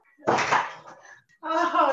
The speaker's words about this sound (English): Come on. I'm going to shut the door.